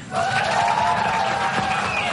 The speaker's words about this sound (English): The crowd cheered as the president called into the event and made his own false allegations.